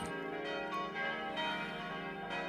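The noon bells of the Stiftskirche and the Allerheiligenkirche in Tittmoning, Upper Bavaria, Germany, ring together in a dense, overlapping peal. Fresh strikes land every second or so over a sustained metallic hum. The ringing is loud and full, with no voices.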